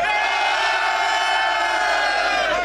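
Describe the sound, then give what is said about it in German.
A loud audience cheers and shouts together in a sustained roar of voices, with whoops rising over the din for the full few seconds, making noise to vote for a contestant. “Okay, wenn ihr Heiding besser fandet, einmal Lärm für Heiding, John.”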